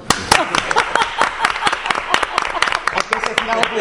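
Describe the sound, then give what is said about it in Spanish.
An audience breaks into applause, a dense, irregular patter of sharp claps that keeps a steady loudness for several seconds, with a faint voice briefly audible underneath near the end. “Un aplauso.”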